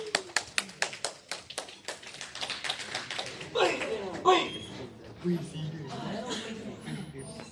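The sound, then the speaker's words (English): A group bursts into applause, starting with a run of sharp, steady claps that blur into a denser patter as voices, cheers and chatter rise over it. “Anyway, big applause yeah, now.”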